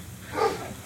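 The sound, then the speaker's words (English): A single short bark from the speaker's own female dog rings out, somewhat muffled, over a faint steady background hum with no one talking. “So yeah, that's my dog.”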